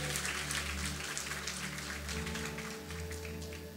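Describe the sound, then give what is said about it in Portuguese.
A church audience claps for Jesus in steady, dense applause lasting several seconds, with a low hum underneath and no voices standing out. “Você pode dar uma salva de palmas para Jesus?”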